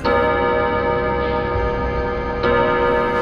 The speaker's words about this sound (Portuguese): Ele o relógio de parede, o relógio de pêndulo tocava pontualmente. De dia, tudo bem. Mas à noite, aquele relógio tocava à noite e perturbava a família inteira.